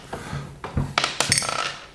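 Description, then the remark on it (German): Dice clatter across a hard tabletop in a quick burst of sharp clicks and knocks that tumble together before settling, rolled to decide who starts a game, with faint background murmur underneath. “Ach, aber, äh, vielleicht würfeln wir direkt los, irgendwie, ja.”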